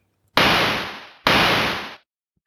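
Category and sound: sound effect, gunshot sound effect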